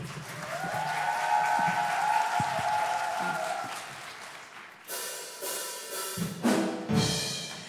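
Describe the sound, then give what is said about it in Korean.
A crowd claps steadily for several seconds with a faint cheer or whistle riding over it, welcoming a praise ensemble onto the stage. The applause then thins into scattered, uneven bursts before fading. “우리 함양 …의 무대를 박수로 청해 듣겠습니다.”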